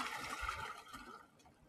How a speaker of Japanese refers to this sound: まあちょっと、波の音をどうぞ。